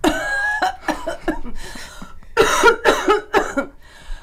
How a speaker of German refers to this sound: ich präsentiere euch jetzt ein feministisches Husten. Das klingt nämlich so.